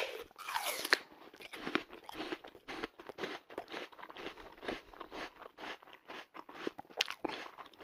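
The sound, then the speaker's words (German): A loud bite into a crunchy apple, followed by a steady run of wet, crackling chewing crunches repeating rapidly for several seconds, with no voices. “Wenn, wenn da bei mir in der Nähe jemand einen Apfel, also Apfel ist für mich die absolute, ähm, die Komposition an Scheißhaftigkeit.”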